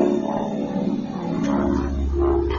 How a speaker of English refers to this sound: Would you hear that plane going overhead? That's that's the plane that brought me here.